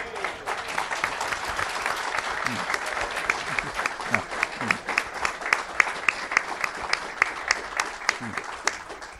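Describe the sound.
An audience applauds steadily, a dense rush of many hands clapping with sharp crisp peaks, sustained and fairly loud throughout, with some murmured voices mixed in underneath.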